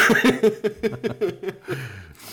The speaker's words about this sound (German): also man, man hört ja deutlich raus, dass das äh, ein Husten ist, der nicht, äh, der, das hört man ja raus.